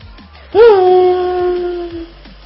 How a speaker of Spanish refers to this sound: El motor de la Fórmula 1. Eh, ese sonido desde que Eh, mira, yo desde que sé- lo emiten en la desde que lo emiten en la tele a mí me taladra la A cabeza.